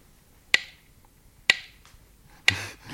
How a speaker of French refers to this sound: Entendez-vous le tic-tac de la pendule C'est tout à fait comme l'horloge de la mort qui fait son bruit dans la cloison. Entendez-vous ce qu'elle dit Le temps. Le temps.